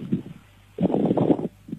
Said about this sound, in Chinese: 不是了，我这个扇风扇， 那您把风扇往边上挪一挪行不行？我这听着呼呼的风声 嗯，不是的，我这扇风扇，